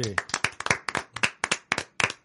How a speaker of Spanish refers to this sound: Aplausos, por favor.